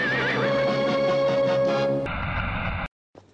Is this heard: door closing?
no